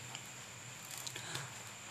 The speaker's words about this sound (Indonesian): ngomong sekarang hujan gitu ya iya, ini kan pasti hujan